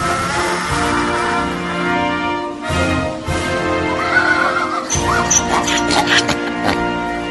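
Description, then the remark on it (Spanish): A donkey brays loudly for several seconds, a harsh, wheezing honk that rises and falls in pitch over and over without pause. “¡Se te quedó la burra!”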